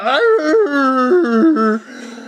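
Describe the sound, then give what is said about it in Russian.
A person vocally imitates the howl of a dog that has been shot: a loud, wavering yelp-whine with stepping pitch that lasts about two seconds, then breaks off into faint noise. “Собака, которую подстрелили, давай.”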